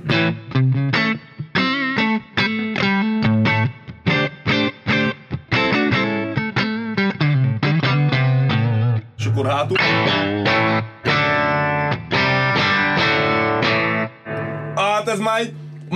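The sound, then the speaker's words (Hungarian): A distorted electric guitar with a warm, rounded neck-pickup tone plays busy riffs and chords, loud and sustained, with a few brief pauses and bright high notes near the end. “én addig zajongok közben, csavarod? direkt a nyaki hangszedővel, azt, hogy hátra megyünk, mert ami elő jól szól a nyakival, Aha.”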